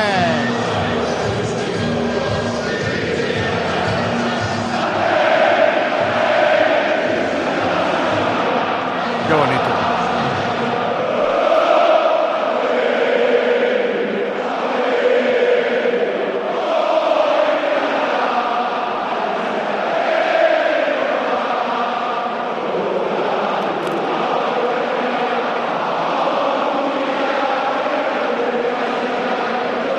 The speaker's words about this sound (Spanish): Bueno, para el que no esté viéndolo por la tele, rojiblancas las francas, lleno a reventar, bufandas al viento, la gente cantando, noche preciosa, noche importante. Noche de San Mamés.